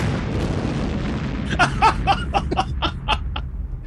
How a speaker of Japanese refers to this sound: ここはドーンでいいです。P じゃなくて、ドーンでいいです。